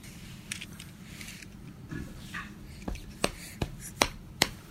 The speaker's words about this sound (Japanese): お膝を叩いたな膝を叩いたね